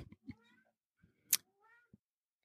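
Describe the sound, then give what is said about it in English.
A cat, Sully, meows twice, with short, fairly faint, drawn-out cries separated by a brief scratchy burst and a few soft thumps. No one speaks. “Oh, I hear Sully.”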